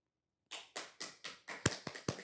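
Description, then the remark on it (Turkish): A single person claps in a steady rhythm, applauding themselves: about eight sharp, bright claps that grow slightly quicker and louder toward the end, with no talking. “Ben de kendimi alkışlıyorum.”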